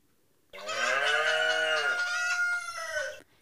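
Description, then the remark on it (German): Farm animals call out together, a hen, a rooster and a colourful cow, in one loud, sustained burst lasting nearly three seconds, with no talking, answering a question put to them by an old man with a white beard. “Der Mann mit dem weißen Bart fragte wieder die Tiere Schön Hühnchen, schön Hähnchen und du, schöne bunte Kuh, was sagst du dazu?”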